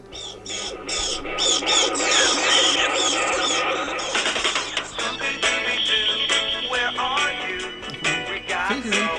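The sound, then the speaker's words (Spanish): The upbeat intro theme of the Hanna-Barbera cartoon Scooby-Doo plays loudly for the whole stretch, with a bright, busy melody over steady rhythmic percussion and sharp, repeated hits. “Ah, mira, este es el intro que yo sí recuerdo de Scooby-Doo.”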